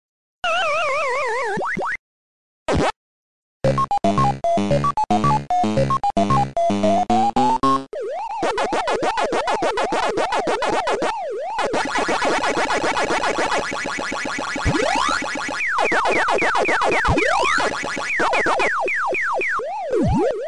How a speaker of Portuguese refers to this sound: Ele tem, ele tem um ritmo, ele Isso. tem um ritmo aleatório. Você escutando ele, você, você, consegue fazer uma música utilizando os sons de Pac-Man fácil, fácil, Sim. né?